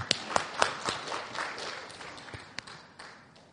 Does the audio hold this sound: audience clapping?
yes